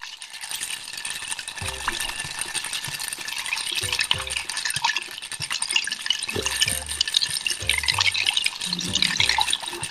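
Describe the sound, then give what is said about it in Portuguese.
Ice shaken steadily in a glass at home for several seconds, a continuous dry rattling that imitates a rattlesnake's buzz, with faint background voices underneath. “Vai, eu tô com pouco gelo, mas eu ia fazer o barulho da Cascavel em homenagem.”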